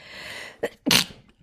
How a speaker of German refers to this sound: Ich muss niesen. Ja. Aber ich kann gerade nicht.